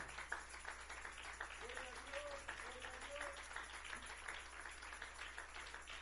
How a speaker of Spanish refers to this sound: Le damos un fuerte aplauso a él, aleluya.